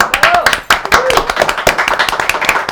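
An audience breaks into steady applause for a guest, a professional model and makeup artist, with dense overlapping hand claps keeping up a lively, continuous patter for a few seconds and faint voices mixed in beneath.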